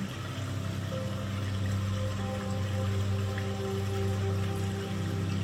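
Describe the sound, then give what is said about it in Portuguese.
Water flows in a steady, continuous wash, like a stream or fountain, holding an even level throughout with a soft low hum beneath it and no voices. “Vamos ouvir o barulho da água da vida circulando perto de nós, nos conectando a essa energia.”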